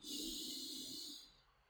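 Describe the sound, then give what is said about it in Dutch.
A single long, deep breath drawn in through the mouth during a breathing exercise, airy, lasting about a second before fading out; no talking. “Ik deed nu via mijn mond, maar eh, het beste is ook via je neus.”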